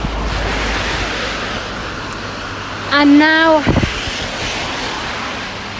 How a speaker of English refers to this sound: yeah, it's absolutely pouring it down and I'm soaked. So I'm just walking up a hill called uh, Tanner's Bank up from the quayside.